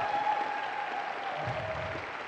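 An audience breaks into steady, sustained applause, a dense wash of many hands clapping at even loudness throughout, with no single voice standing out.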